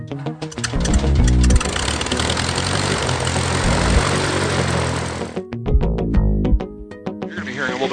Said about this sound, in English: background noise throughout the day, but it's just airplanes, so it's not it's, it's not really noise. Good background noise.